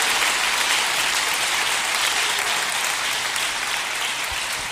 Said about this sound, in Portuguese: Você pode aplaudir e glorificar o Senhor?